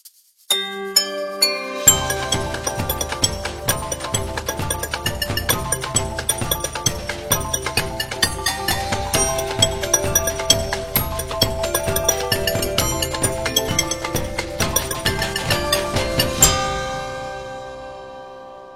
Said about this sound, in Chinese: 下面我们就一起来欣赏一段青年打击乐演奏家刘恒现场用各种各样的玻璃杯敲奏出的美妙乐曲。